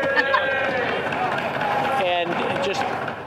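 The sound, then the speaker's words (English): Loud, continuous heckling: several voices shout over one another without pause, a dense clamour that buries the speaker trying to talk underneath it. “But what I'm hearing is someone bullying and trying to drown someone out.”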